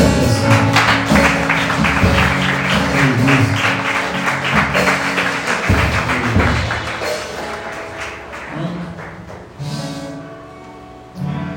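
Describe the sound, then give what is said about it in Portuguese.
An audience claps loudly together after a prayer on a Holy Communion night, a dense, sustained wave of applause that gradually thins out near the end, with scattered taps and thuds mixed in. “Se você recebeu essa oração, você pode com Aplauda ele”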